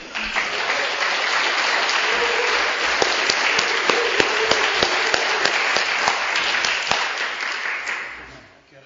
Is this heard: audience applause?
yes